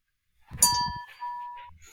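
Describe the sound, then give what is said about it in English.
In a buzzer test before a quiz, everyone presses their buzzer, setting off a bright, ringing electronic ding that holds for about a second, with soft thumps of the buttons at the start and another tone briefly overlapping. “Can we do a buzzer test first just to make sure? Yes. Everyone hit your buzzer.”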